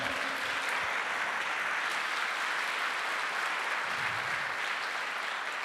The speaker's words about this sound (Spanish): ¿Cuántos dicen amén? ¿Cuántos dicen amén? Dele fuerte ese aplauso al Señor.